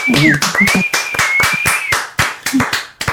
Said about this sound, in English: that's lovely uh, applause. Thank you.